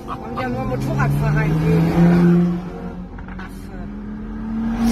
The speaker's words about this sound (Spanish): Mira, mira el de la moto, el susto que se tiene que haber pegado con un coche aquí en dirección contraria.